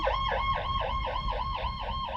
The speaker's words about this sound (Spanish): Aquí está pasando ahorita una ambulancia, van a escuchar mucho ruido.